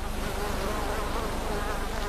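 A steady, high whining buzz of mosquitoes pestering mudskippers, several insects droning without a break, fairly loud and continuous, with no voices.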